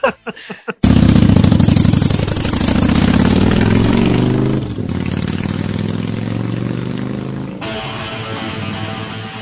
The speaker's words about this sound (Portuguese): uma moto de 750 cilindradas aí é uma puta de uma moto, maluco.